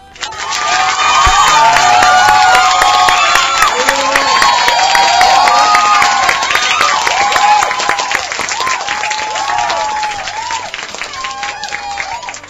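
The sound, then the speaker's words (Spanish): A crowd applauds loudly and steadily for several seconds, dense clapping mixed with cheers and whoops, then gradually thins out toward the end. “Voy a aclarar que el aplauso es por lo primero que dijo Jorge, no por el final, ¿ok?”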